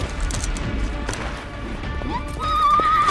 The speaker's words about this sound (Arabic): رمت شاد نفسها فوق سهم عندما وصلت إليه وبدأ الفرس بالركض خارج القرية وإلى الغابات التي أتيا منها